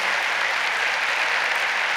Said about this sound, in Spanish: Así que si se ponen de pie, queremos saludarlos. ¿Dónde están? Ahí están, les damos un aplauso, gracias por visitarnos.